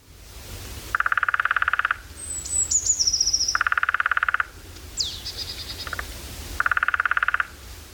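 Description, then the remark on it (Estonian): Three bursts of lesser spotted woodpecker drumming, each a rapid, even roll of many taps lasting about a second, separated by short pauses, with thin bird calls in the background. “ja nüüd võrdleme väike kirjurähni toksimise tempoga”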